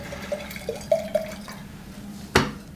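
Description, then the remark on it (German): White wine, a Walliser Petit Darwin from the Valais, glugs softly out of a bottle into a glass in a few short bursts, followed by a single bright clink of glass near the end. Quiet, with no talking. “Zuerst aber nehmen wir äh, einen Schluck, einen Schluck Weisswein.”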